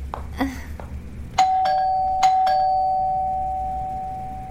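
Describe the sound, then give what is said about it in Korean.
The doorbell of apartment 1703 on the 17th floor rings out with a couple of sharp electronic chimes, then one long sustained tone holds steady for several seconds as it is pressed long, twice in a row, clear over a faint low background hum. “금실장이 1703호의 초인종을 길게 눌렀다.”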